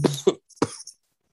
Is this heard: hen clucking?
no